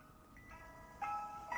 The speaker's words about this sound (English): So she hears the ice cream truck, which will send any kid running. She heard, heard and saw this Mr. Softee truck going down Briggs Avenue.